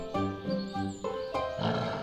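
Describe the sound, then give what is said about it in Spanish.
A loud, hungry wolf growl rolls out in several rough, throaty roaring bursts, one after another with barely a pause between them, and no speech alongside. “Entonces apareció el lobo rugiendo hambriento y gritando, Cerditos, voy a comer.”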